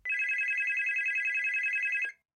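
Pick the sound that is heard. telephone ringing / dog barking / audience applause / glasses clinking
telephone ringing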